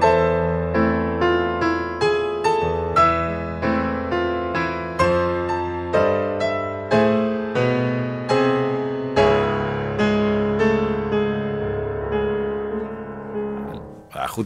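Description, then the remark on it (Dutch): An opera passage with a female voice straining in an anguished, crying tone over steady, pulsing orchestral chords that repeat about twice a second, loud, before cutting off abruptly. “Een soort van diep menselijke schreeuw die ze ook in het gezang laat horen.”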